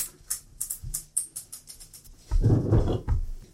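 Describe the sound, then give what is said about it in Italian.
A rapid series of small hard clicks and rattles, like dice tumbling and clattering onto a table, ending in a louder burst of rolling knocks. No one speaks. “Eh, i, i classici dadi che cadono.”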